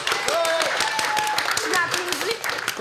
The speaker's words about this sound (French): tu t'applaudis, tu te donnes des points.